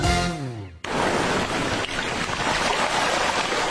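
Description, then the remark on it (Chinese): After a brief descending swoop of tone, a steady, full roar of ocean waves washes onto the shore, loud and continuous with a hissing surf texture and no voices. “一波翻滚的浪花涌向岸边”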